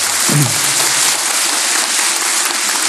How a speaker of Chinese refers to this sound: 现在呢，他出家出的还不错，诸位给他鼓鼓掌嘛！